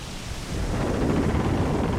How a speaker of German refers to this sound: Also, ich habe dir vorhin erzählt, dass ich für den Anfang unseres Kinofilms auf einem Piratenschiff gedreht habe. Und als wir da gefilmt haben, da gab es einen krassen Sturm, wirklich der krasseste Sturm der Welt.